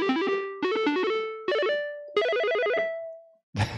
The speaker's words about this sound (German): so ein paar ja, Chip-Sounds reingeladen. In die Richtung, und, äh, äh oder? Doodle jetzt hier so ein bisschen im ähm, Hintergrund rum